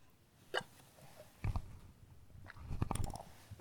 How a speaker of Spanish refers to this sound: Pausa para eh, trago de café, perdón.